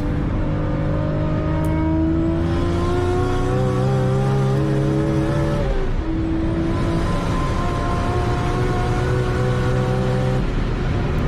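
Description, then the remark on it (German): A Toyota Supra with a huge turbo revs hard through rising gear pulls as it accelerates. Its pitch climbs steadily, dips briefly at a shift midway, then climbs again. Loud and continuous with no talking. “REAKTION auf Toyota Supra HUGE TURBO”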